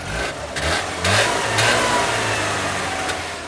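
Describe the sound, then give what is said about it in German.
A Trabant 601S Deluxe two-stroke car engine runs, revving in short bursts with a rattly, buzzing putter before settling into a steady idle, a small blue puff of smoke leaving the exhaust. No one speaks. “bei seinem Trabant 601S Deluxe ein kleines blaues Wölkchen aus dem Auspuffrohr vor dem linken Hinterrad den Weg ins Freie bahnt und das typische Reng Deng Deng Deng Deng Deng Deng Geräusch erklingt,”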